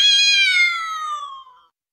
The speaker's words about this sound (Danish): Er det en kat? Ja, det ved vi jo i vores dage, at det er. I gamle dage tænkte man, er det en dæmon?